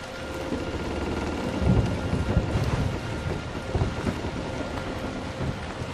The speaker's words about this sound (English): Excellent CGI, by the way because now the storm is Calming. subsiding and nice calm waters, and you can actually see a fair distance.